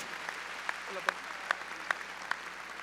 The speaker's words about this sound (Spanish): A ver, démosle palmas fuertes a mi Señor. Gloria a Dios.